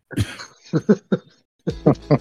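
Loud coughing comes in short bursts: a single cough, then a quick cluster of three, a brief pause, and another run of three hacking coughs.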